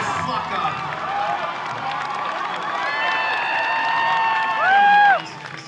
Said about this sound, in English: So you hear how just insane everyone's yelling out stuff. It's pretty crazy.